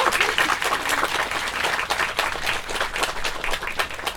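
An audience applauds steadily to thank an invited guest at the end of an event, many hands clapping in a dense, continuous patter that stays fairly loud throughout, with no one speaking over it.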